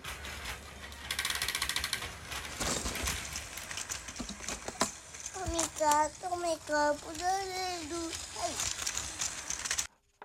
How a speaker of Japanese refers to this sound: はいはいはいチャーチャーのトミカの音